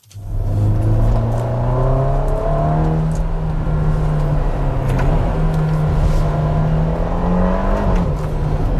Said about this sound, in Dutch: En Wouter die vloog naar Italië om daar de Ferrari Roma aan de tand te voelen.